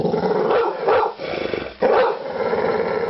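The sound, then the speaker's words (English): A brown pit bull from West Auckland barks several times in quick, uneven bursts with low growling between them, loud, with no voices present. “The West Auckland Brown Pit Bull.”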